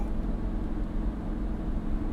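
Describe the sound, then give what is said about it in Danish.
A steady, heavy low rumble of engine and road noise from a van towing a trailer as it overtakes on the road toward Odense in the early morning dark, holding an even loudness throughout with no voices. “Vi blev overhældet af en kassevogn med trailer.”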